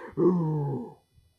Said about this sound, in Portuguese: O leão mandão rugiu. E o outro leão respondeu com um rugido na hora.